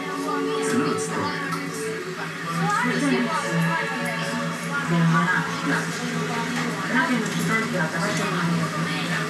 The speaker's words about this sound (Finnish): Että se lukee sieltä, se kuoro feidaa, samaan aikaan se ratikan äänimaisema.